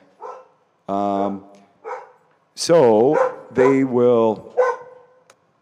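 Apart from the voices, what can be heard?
dogs barking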